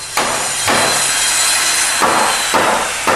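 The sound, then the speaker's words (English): Wood sanding by a 94-year-old man on work for the Sydney Metro line: a loud, steady abrasive rasp broken by sharper strokes every half second or so, like a block pushed back and forth across a board. No voices. “Pop, this is Papa, Pare- just for those that can't see, Papa Pirelli, 94 years of age, 94. sanding.”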